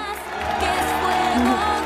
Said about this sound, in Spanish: Aplausos. Aplausos. Gracias.